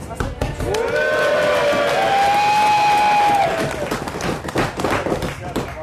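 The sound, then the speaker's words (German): A live crowd at Wacken cheers loudly, with a sustained rising and falling whoop standing out over the dense roar of voices and scattered claps, then the noise gradually tapers off. “toll und ihr schlägt schon auch das Signal aus, dass es viel zu laut war.”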